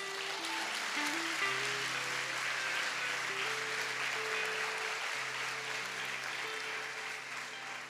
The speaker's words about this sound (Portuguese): Pode dar um salve de palmas para Jesus, amados.